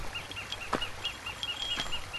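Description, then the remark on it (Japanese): Small birds chirp repeatedly in short, evenly spaced high notes, fairly faint against a soft outdoor hush. It is dusk in a forest at Kamikochi, Nagano, Japan, and the birds are unseen. A couple of brief rustling or jingling bursts in between come from a bear bell that jingles as someone walks. “今は夕方で鳥が姿を見せずに鳴いている熊よけの鈴が歩く振動に合わせてシャリンとなる”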